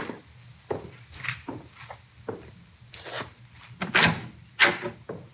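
A door is opened with a series of wooden knocks, scrapes and rattles, ending in two sharper, louder clunks, with soft shuffling movement between them and no voices.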